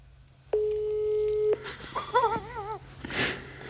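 A single steady phone ringback tone of an outgoing call plays for about a second, clear and fairly loud, followed by a short wavering vocal sound and a brief burst of noise.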